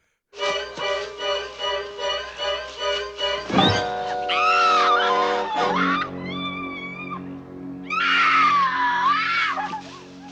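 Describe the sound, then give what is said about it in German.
Loud, piercing screams rise and fall over a pulsing musical jingle: a first shriek bursts out partway through, more wavering cries follow, and another drawn-out scream comes near the end. “Der letzte Schrei.”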